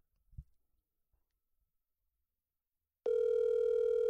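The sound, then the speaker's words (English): A soft thump, then near-silence, then a loud, steady electronic phone ringing tone cuts in and holds unbroken to the end, the sound of an outgoing call waiting to connect. “I said, answer the phone when I call.”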